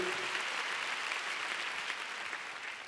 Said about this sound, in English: So oh, come on, let's give God a big hand. Amen. Oh, you want to clap? Let's give God, the Lord a big clap. Hallelujah.